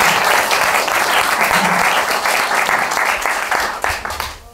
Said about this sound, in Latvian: Paldies, aplausi mūsu brīvprātīgajai, brīvprātīgajai.